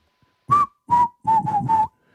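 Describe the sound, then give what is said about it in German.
A person whistles a short song tune: four breathy notes, the first slightly higher and sliding down, then three steady lower ones in quick succession, with no talking. “Kannst du es pfeifen schon?”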